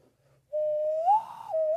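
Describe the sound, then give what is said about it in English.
A person whistles an imitation of a loon call: one sustained, clear tone that swells and wavers upward in the middle before settling back, with no talking. “I can make a loon sound like this.”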